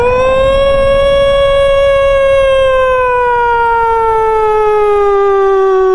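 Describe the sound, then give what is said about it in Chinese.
A mine alarm siren, heard from a school classroom, wails loudly and steadily for six seconds, one sustained rich tone that slowly glides lower in pitch. No voices, only a faint low rumble underneath. “大家回到自己的座位上，老师的话音刚落，就响起了矿井的警报。呜！”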